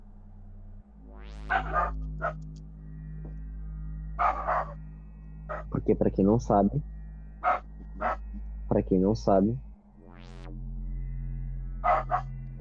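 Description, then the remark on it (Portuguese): A female dog barks sharply in two quick clusters of several barks each, loud, while people talk before and between them over a steady electronic hum. “Caralho, mas a cachorra não.”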